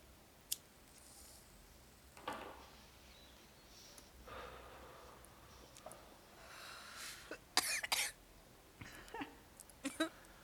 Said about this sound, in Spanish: Diría un compa, si tosiste, ya la hiciste.